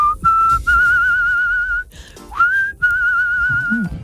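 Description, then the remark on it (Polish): The singer whistles a long, steady high note in several sustained bursts, with short breaks and one upward-sliding note, showing how she will call her dog on walks, loud and without any talking. “…, …, pokaż jak będziesz od dziś wołać swojego psa na spacerach.”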